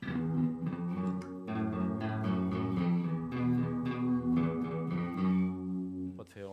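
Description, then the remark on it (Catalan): A guitar plays a sustained melodic line through a harmonizer used as a chorus effect, which repeats each note and detunes it for a shimmering, wavering tone, with no talking. “funció de coros, perquè el que fa és repetir la mateixa nota i la desafina.”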